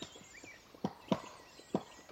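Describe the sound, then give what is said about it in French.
A pair of black woodpeckers, male and female taking turns, excavating a nest hole in a large poplar in Val-de-Drôme at the foot of the Vercors, France, in spring, May 2020: a few sharp, hollow knocks against wood at an uneven, unhurried pace, with fainter taps in between and no one talking. “C'est un couple de pics noirs en plein travail sur un grand peuplier qui profite de la route toute proche aujourd'hui désertée le mâle et la femelle se relaient pour creuser une loge dans laquelle ils vont installer leur nid.”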